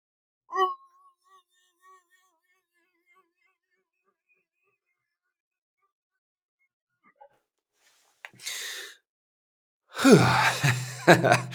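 After a quiet stretch with a few small mouth sounds, a big, sharp breath in is followed by a loud, strained scream, muffled by a hand held over the mouth, lasting a couple of seconds.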